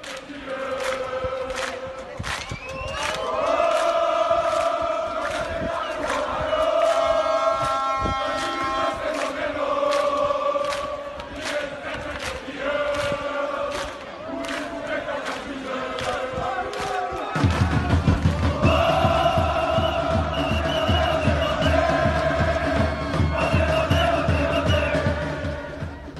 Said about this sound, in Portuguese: Então vamos ouvir um pouco o barulho da torcida aqui, porque isso essa é uma parte importante do nosso podcast, sentir o clima eh, dos torcedores.